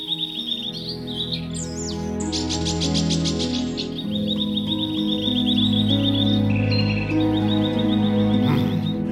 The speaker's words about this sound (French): Les deux chants ne s'accordaient pas. L'oiseau mécanique ne faisait que dérouler sa partition comme une boîte à musique, tandis que le rossignol improvisait les notes et chantait selon son cœur.